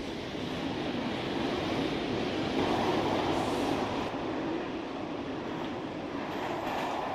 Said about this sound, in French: On entend juste le bruit du train et le crissement des wagons. Tu as comme un silence entre les stations, comme si le temps était suspendu.